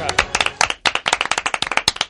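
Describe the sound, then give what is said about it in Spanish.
A brief round of applause from a small group, with many sharp, irregular claps packed closely together at a steady, lively pace for about two seconds. “Un aplauso, por favor, un aplauso.”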